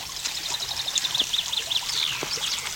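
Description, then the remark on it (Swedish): Water runs steadily over cobblestones in a shallow stream about five meters wide, a continuous babbling gurgle with bright splashing ripples, with faint birdsong in the background and no talking. “Så får vi höra och vi kan höra var det rinner någonstans.”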